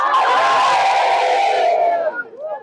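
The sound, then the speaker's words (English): An audience jumps and shouts glory together in a loud, sustained roar of many overlapping voices. After about two seconds the noise drops off, leaving a few scattered, trailing cries. “As we are jumping and shouting glory, you are coming out.”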